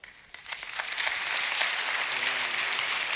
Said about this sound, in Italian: È un buon applauso. È un buon applauso.